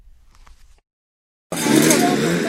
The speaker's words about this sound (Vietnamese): Đây là tiếng máy cắt cỏ tại trường trung học cơ sở Động Quan, xã Động Quan, huyện Lục Yên, tỉnh Yên Bái.